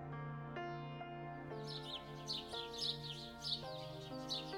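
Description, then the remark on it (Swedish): Birds chirp just before dawn in a steady series of quick, bright calls that start a moment in, layered over soft, sustained musical tones with occasional gentle note changes underneath. “Har du tänkt på att fåglarna börjar kvittra precis innan gryningen?”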